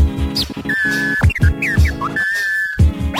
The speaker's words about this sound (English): then I blow this whistle.